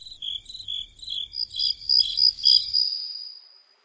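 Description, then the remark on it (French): High-pitched cricket chirping in rapid, pulsing trills, steady, swelling slightly before fading out near the end, with no one speaking. “Aujourd'hui, je vais vous parler du grillon d'or.”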